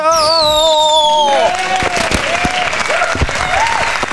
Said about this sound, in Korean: 아, 지금 폭죽이 터지는 와중에 우리 3741님이 오늘 아침에 쾌변했다고 합니다. 폭죽 주세요!